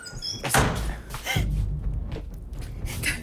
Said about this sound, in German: Mach, mach mal die Tür zu.